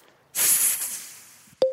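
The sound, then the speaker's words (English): A snake's sharp, breathy hiss bursts out loudly and trails off over about a second, followed right after by two quick electronic beeps. “The snake hissed in delight when he took the sixth spot.”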